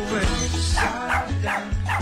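A small dog yaps four or five times in quick succession, sharp, with short regular gaps between barks over a low, steady background hum.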